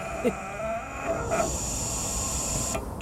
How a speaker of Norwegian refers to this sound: Og så trykker jeg på en grønn knapp her, og da begynner den å fylle. Og da lager den litt andre lyder da enn en bensinpumpe, for da kommer det litt sånn psjt-lyder.